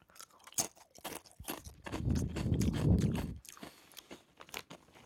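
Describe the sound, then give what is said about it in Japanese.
Loud, sharp crunches of hard-fried, spicy curry-flavored potato chips being bitten and chewed, a rapid irregular series of crisp cracks with a denser, rumbling chewing stretch in the middle, no talking. “この堅揚げ感が、この、”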